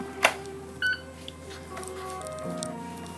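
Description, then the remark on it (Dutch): A single short electronic beep from a hospital infusion pump (perfusor) holding medication such as sedatives and blood pressure drugs, a bright tone with a clean ringing pitch, follows a sharp click over a low steady hum. No one speaks. “Mag ik je een geluid laten horen van onze. Misschien dat je dat wel hoort. Van de perfusoren.”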